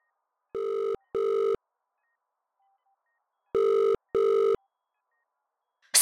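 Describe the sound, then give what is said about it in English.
A telephone rings twice in the classic double-pulse pattern, two quick buzzy tones, a pause, then two more, clear, ending with a brief click as the line picks up. “Hand me my phone now.”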